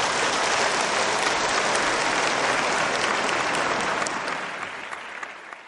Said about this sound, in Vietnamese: Xin chào đón ông Nguyễn Đắc Quý bằng một tràng pháo tay thật nồng nhiệt.